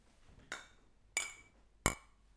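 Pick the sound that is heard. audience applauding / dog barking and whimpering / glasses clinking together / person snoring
glasses clinking together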